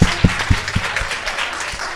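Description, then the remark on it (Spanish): An audience applauds in a steady, dense wash of clapping, with a few heavier claps falling into a quick, even rhythm. No one speaks over it. “Venga, dale un aplauso, hombre, nave, que se la ha merecido.”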